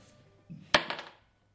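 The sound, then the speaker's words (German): Dice are tossed onto a hard surface in a role-playing game to decide whether a door is open (even) or locked (odd): one sharp clack followed by a brief flurry of lighter rattling clicks that die away within half a second. Nobody speaks. “Wenn du gerade würfelst, ist die Tür auf.”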